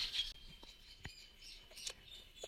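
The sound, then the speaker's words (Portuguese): Faint birds chirping in short high-pitched bursts, strongest near the start, with a few soft clicks and rustles and no one talking. “Pássaros.”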